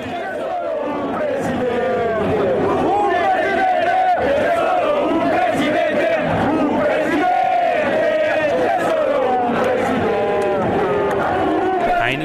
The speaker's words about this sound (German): Aber diesen Mann nennen sie trotzdem immer noch Präsidente, den Präsidenten. Und jetzt, an diesem Maiabend im Zentrum von Mailand, fangen hunderte glückliche Milanisti an, in Richtung dieses Mannes zu rufen